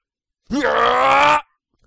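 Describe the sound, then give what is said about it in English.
A man's voice lets out a single loud, strained groan, about a second long, imitating the grunt of Zangief throwing in the original Street Fighter 2. It rises sharply, holds steady, then cuts off. “Uh, or anybody who throws in Street Fighter, the original Street Fighter 2.”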